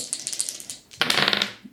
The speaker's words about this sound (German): Ja, dann würfel einfach.